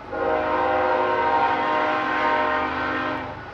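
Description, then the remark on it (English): A freight train's horn blares in one long, loud, sustained chord as it passes the tiny town of Peach Springs on the Hualapai Nation, by historic Route 66. Its steady harmonic tones hold for several seconds before easing slightly. “Some 80 trains a day sound their horns as they pass the tiny town of Peach Springs.”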